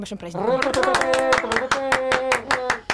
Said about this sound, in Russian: Почему мы только вдвоем аплодировали? Нас тут а, четверо.